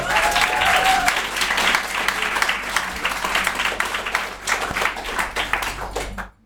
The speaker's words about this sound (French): On peut peut-être les applaudir un petit peu.